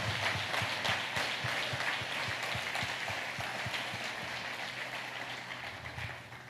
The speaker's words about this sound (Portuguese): Você pode dar um aplauso para Ele? Aleluia! Aleluia.